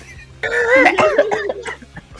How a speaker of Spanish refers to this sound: Perdón, es que reírse y toser a la vez no, no, es, no es buena